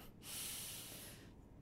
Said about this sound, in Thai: หายใจเข้าลึกๆหายใจออกยาวๆเนี่ยมันเป็นเทคนิคนะที่มีการศึกษาวิจัยออกมาเลยอ่าคุณผู้ฟังลอง หายใจเข้าลึกๆ ให้เต็มปอดอ่า หายใจออกยาวๆแล้วหายใจเข้า